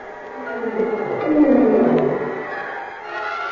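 A tiger, Ganges, snarls at a tunnel gate to get into an arena: one long, rough growl that swells in the middle and then tapers off, fairly loud, with no voices over it.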